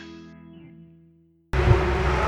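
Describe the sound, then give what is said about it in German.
A sustained tone fades out into a brief silence, then a dense, steady wash of background noise begins, like a large crowd of spectators murmuring. “Ihr hört es vielleicht an den Hintergrundgeräuschen gerade eben. Äh, hier sind eine Menge Zuschauer unterwegs”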